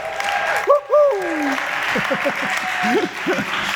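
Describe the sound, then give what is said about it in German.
A crowd applauds steadily throughout after a bass solo, a dense wash of clapping, while voices call out and talk loudly over it. “Riesenapplaus”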